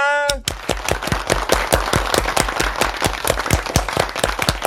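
Steady, rapid hand clapping, about twenty sharp claps in an even rhythm, keeping up for several seconds at a lively, fairly loud level after a brief voice at the very start.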